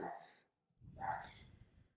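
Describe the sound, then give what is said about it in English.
A dog snorts and huffs in two rough, breathy bursts separated by a short silence, the second longer and more agitated. “sorry our dog is it's just getting so crazy”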